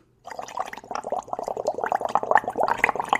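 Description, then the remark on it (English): A voice mimics a Keurig single-serve coffee maker brewing a cup of coffee: a continuous burst of bubbly gurgling and sputtering that grows a bit louder toward the end, with no words spoken. “Tell me you're really impressed by my ability to make these crazy sounds.”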